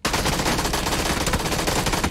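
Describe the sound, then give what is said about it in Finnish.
Rapid, sustained automatic gunfire from a video game, loud, with dense bursts of shots running continuously throughout and no voices over it. “tää ulkopuolella nokkas, mut vittu ammuin päin vittu.”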